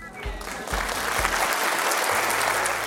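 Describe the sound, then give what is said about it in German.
Audience applause for a guest swells into a steady, dense wash of clapping that holds loud throughout, with a few low thumps early on and no clear voices over it. “Du hast dir einen Applaus verdient, würde ich sagen.”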